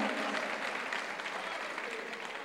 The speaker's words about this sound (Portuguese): Aplaude.